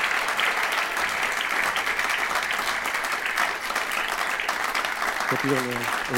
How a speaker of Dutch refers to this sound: Eh, mag ik jullie eh, naar het podium uitnodigen. En eh, een hartelijk applaus voor twee vrijwilligers die een demonstratie gaan geven.